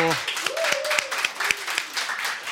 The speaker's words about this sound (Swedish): En applåd också.